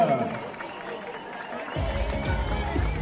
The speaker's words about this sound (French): Et vous les applaudissez bien fort, mesdames et messieurs, nos dames, de ce TDS.